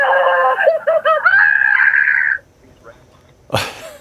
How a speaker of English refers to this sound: has launched a website and a phone number inviting anyone and everyone to call and let out their frustrations by screaming into the line.